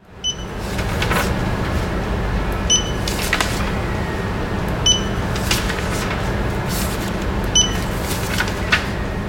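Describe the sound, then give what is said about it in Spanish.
A barcode scanner gun beeps about four times at irregular intervals while reading barcodes on sample request forms into a database, each short high-pitched chirp standing out over a steady low mechanical hum, with faint clicks in between. “El pitido que habéis estado escuchando es esa lectura del código de barras por la pistola específica que luego va a trasladar la información a nuestra base de datos.”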